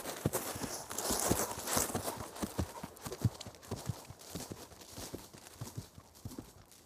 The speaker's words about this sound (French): Un hennissement de cheval et bientôt une petite troupe de cavaliers arriva à proximité.